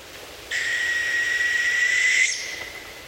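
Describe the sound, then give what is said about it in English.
A northern hawk owl, a medium-sized owl of northern boreal forests, gives a single long, steady, high-pitched whistled trill lasting nearly two seconds, clear against quiet outdoor background noise, recorded on a phone during a morning walk near Denali National Park, Alaska. “matched the call to a northern hawk owl, a medium sized owl that lives in northern boreal forests”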